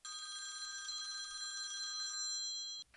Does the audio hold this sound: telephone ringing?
yes